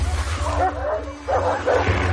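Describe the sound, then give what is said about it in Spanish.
Several wolves bark and whine as they come out of a tunnel, a run of short yelping barks mixed with higher whimpering cries over a low steady rumble, with a second louder burst near the end. “El zorro sonríe, los lobos salen del túnel.”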